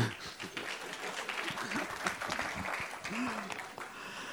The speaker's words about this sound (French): Oui, vous pouvez l'applaudir.